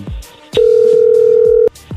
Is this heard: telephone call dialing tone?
yes